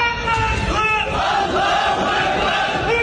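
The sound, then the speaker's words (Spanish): A large crowd of Muslims at a pro-Palestine demonstration in Lavapiés, central Madrid, chants the war cry "Allah is great" against Israel in unison, loud and sustained, with rising and falling shouted voices blending into a continuous roar. “Al grito de Alá es grande, un numeroso grupo de musulmanes residentes en la capital española se concentraron clamando el grito de guerra contra Israel.”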